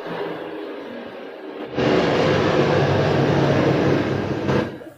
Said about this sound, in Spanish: Güey, el helicóptero. ¿Escuchan el helicóptero? Sí.